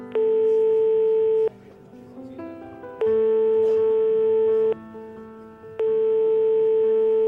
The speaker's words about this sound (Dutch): Roy probeert Noah per telefoon te bereiken, maar hij neemt niet op.